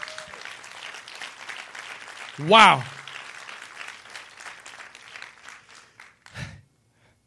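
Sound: audience applause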